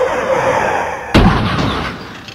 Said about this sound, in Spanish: Esta se impactó en un auto Dodge Coronet, en la cual viajaban una familia completa.